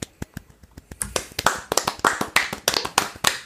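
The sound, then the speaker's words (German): Wild hand clapping from an audience after the placings and points of a competition are announced: a few scattered, sharp claps at first, then quickly building into fast, dense, irregular applause that keeps going to the end, with no voices. “Wildes Handgeklapper.”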